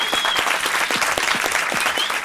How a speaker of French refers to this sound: Merci au public qui est venu voir cet enregistrement. Applaudissez-vous, applaudissez-vous.